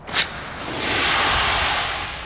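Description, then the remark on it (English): A brief burst, then a powerful jet of water from a police water cannon spraying protesters in a city centre blasts steadily, a loud, continuous rushing hiss that swells and holds without any voices; the water is coloured with purple dye. “I heard someone shout, they're going to use the water cannons. The police started to spray the protesters.”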